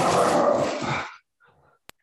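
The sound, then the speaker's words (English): A female dog lets out a loud, sustained burst of barking lasting about a second as a mail carrier comes up, followed by a faint, brief trailing whine and a sharp click. “My dog's about to lose her mind because the the mail lady's coming up, so I apologize if you hear.”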